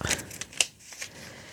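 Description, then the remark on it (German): Crisp wrapping paper rustles and crinkles as a Hydrons gift box is unpacked, a few short bursts with a sharper crackle midway, fairly quiet, and no one speaking. “Lass uns mal die Hydrons-Box auspacken.”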